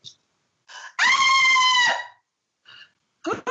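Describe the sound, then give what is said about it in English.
A woman screams after touching something weird inside a clothes dryer, a loud, piercing scream held steady for about a second with strong harmonics, bracketed by short sharp vocal bursts and gasps before and after. “Oh, my ears. What are you screaming for?”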